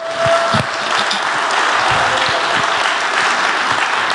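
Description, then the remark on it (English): An audience claps hands at a preacher's call to clap and wake their neighbors up, in a dense, steady burst of applause that holds loud and even throughout, with a brief tone and scattered thumps near the start. “If you're hearing me, clap your hands and wake your neighbor up.”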